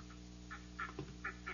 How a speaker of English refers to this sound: Here are the ducks.